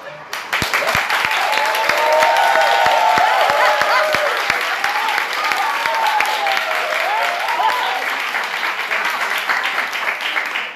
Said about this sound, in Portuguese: Meu, eu dei uma, eu dei uma estourada aqui no áudio do aplauso dessa vez. Desculpa aí, pessoal.